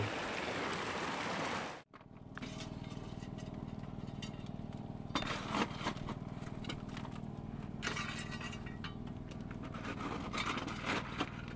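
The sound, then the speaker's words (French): Steady rushing of flowing river water as water bottles are filled from the river, a dense continuous wash that cuts out for an instant near the start, then carries on evenly with no voices. “le bruit de l'eau qu'on a mis dans nos gourdes.”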